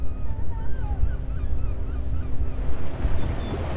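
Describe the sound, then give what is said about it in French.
A boat's steady engine drone rumbles beneath wind and splashing water at sea off Plymouth in south-west England, on a trip to collect plankton samples, with faint seabird calls crying; no one speaks. “Cette sortie en bateau a un objectif bien précis recueillir des échantillons de plancton.”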